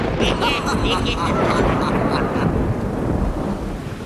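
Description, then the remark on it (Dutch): Steady, loud downpour of heavy rain with deep rumbling thunder rolling underneath on a stormy winter night, a dense continuous roar that fills the whole stretch, easing slightly near the end. “Het was een stormachtige winternacht in Kastelvrek. Ook buiten de slaapkamer kletterde het hevig, dus wou ik mij gratis gaan wassen in de regen.”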